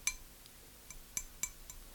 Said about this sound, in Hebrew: לצורך העניין, אני עכשיו מחזיק פה ביד שלי כוס מים, אוקיי? הכוס הזאת שעכשיו אני נוגע בה,